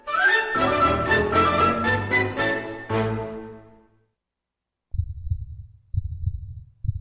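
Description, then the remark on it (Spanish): A bright musical chord rings out and fades, then after a brief silence a deep, muffled heartbeat thumps in steady beats about a second apart, fairly loud, in a radio station promo about the markets. “Escucha el latido de los mercados en Capital Radio.”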